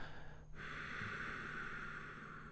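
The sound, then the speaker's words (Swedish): A faint, steady hissing breath drawn through the nose with the mouth closed and slight tension in the throat, demonstrated as a breathing exercise; a soft continuous airy rasp that runs on for a couple of seconds after a brief pause, with no talking. “man får ett svagt väsande ljud inom sig.”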